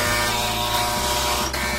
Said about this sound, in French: L'agaçant buzzer retentit une nouvelle fois, coupant la parole au général et perçant les oreilles des deux protagonistes grimaçants. Décembre écrasa son pouce sur le communicateur, plus pour arrêter le son que pour répondre.